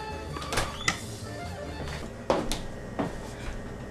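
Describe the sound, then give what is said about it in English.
A handful of clunks and rustles as a refrigerator door is opened and an onion for chicken soup is taken out, spaced irregularly over a low background hum, with no talking. “Let me get it from my refrigerator.”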